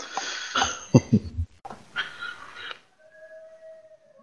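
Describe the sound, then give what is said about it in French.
People howl like wolves outdoors in a street, a burst of rough, overlapping yowls and yips followed by a thinner, steady howl that trails off. “Il y a des loups dans ma rue. Ou il y a des gens bizarres.”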